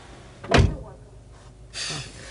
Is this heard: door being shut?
yes